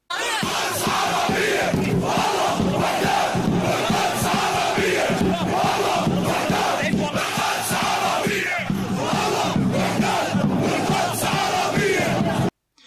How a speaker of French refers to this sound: On y crée alors des clubs de foot comme Al-Wedat, dans le camp qui porte ce nom. Aujourd'hui, cette équipe existe toujours en Jordanie, et à chaque rencontre, ses supporters chantent ça.